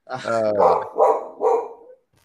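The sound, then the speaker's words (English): A dog lets out a string of loud barks, starting with a drawn-out whiny yelp followed by three quick sharp woofs, then falls silent; it is reacting to someone doing something outside. “dog wanted to join in today.”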